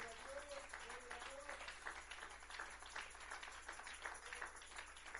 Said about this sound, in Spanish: Le damos un fuerte aplauso a Él, aleluya.